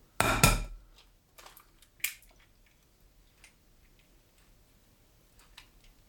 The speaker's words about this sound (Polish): tak żeby to jajko po prostu mi pękło